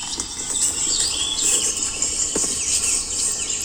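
A dense chorus of songbird calls, warblers and blackbirds, with overlapping high chirps, quick trills and sweeping whistles over a steady, shrill insect-like hiss; no one speaks.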